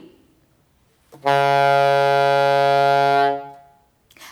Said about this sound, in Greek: Αν κλείσω όλες τις τάπες και επομένως όλες τις τρύπες του σαξοφόνου, θα ακουστεί η πιο χαμηλή νότα, που θυμίζει την μπουρού ενός πλοίου.